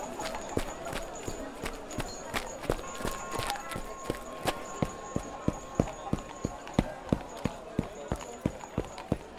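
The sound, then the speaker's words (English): Steady footsteps click across a muddy, slippery stone street, mixed with the hollow clip-clop of horse hooves from many passing carriages, an even walking rhythm over a faint, busy street murmur. “There's lots of carriages in the street and all the mud and dirt and ugh, horse poop have made the stone road very slippery.”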